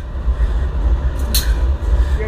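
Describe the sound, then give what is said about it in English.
A train rumbles past about 20 feet away, beside a river, a loud, steady low roar filling the whole stretch, with a brief sharp hiss breaking through partway. “we're literally about 20 feet from a train.”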